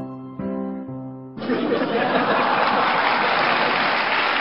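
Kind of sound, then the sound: crowd, audience laughing and clapping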